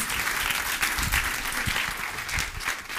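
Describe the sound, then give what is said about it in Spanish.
At a church service, an audience gives a strong round of applause: a dense, continuous wash of many hands clapping at an even loudness throughout, with no voices standing out. “Dele ese fuerte aplauso ahora sí.”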